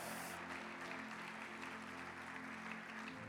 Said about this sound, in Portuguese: Dê um brado ao Senhor e aplaudo neste lugar. Oh!